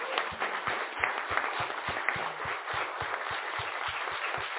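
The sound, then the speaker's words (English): An audience applauds the panelists of a panel discussion steadily for several seconds, a dense wash of many hands clapping at once, with a regular low thumping running underneath. No one speaks over it. “Can we give our panelists a round of applause?”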